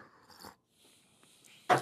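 A quiet sip of tequila, followed by a short pause and then a louder, sharp swallow or breathy exhale. No one speaks.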